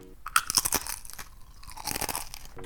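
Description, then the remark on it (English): Crisp crunching as someone bites into crunchy masa corn chips: a burst of sharp cracks, then a steadier stretch of chewing crunches, no talking. “Just listen to this crunch when you bite into masa chips.”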